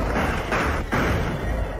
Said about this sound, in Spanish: Oíd tiros. Esto quiere decir sangre, dolor, muerte.